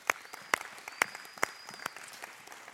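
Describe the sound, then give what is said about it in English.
Light audience applause for women on Mother's Day: a patter of many small claps with a few sharper, louder claps standing out roughly every half second, fairly quiet overall and with no talking. “Um, today we celebrate, and today we applaud all of our beautiful women.”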